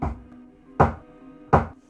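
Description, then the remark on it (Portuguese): Fists pound on a door three times at a slow, steady pace, each blow a loud, heavy thud with a brief booming ring, and no voices. “Enquanto ela esperava ele voltar, alguém bate novamente na porta. Só que dessa vez, a pessoa parecia estar dando socos na porta.”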